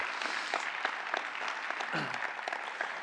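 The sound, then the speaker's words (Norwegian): An audience claps for themselves for having given money to the mayor, in sustained, dense applause, many overlapping hand claps forming a steady crackling wash with no pauses and no voices standing out. “Så da kan dere klappe tilbake til dere sjøl for at dere har gitt de pengene til ordføreren.”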